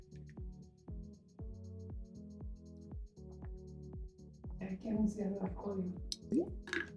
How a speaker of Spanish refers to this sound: Voy a volver a tomar agua, humanos. Dispensen, dispensen.